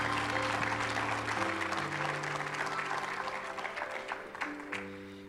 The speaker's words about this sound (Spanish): Dale un fuerte aplauso a nuestro Dios esta mañana.